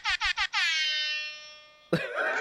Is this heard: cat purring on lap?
no